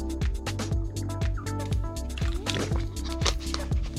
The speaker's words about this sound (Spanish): Soy humano, tomo agua.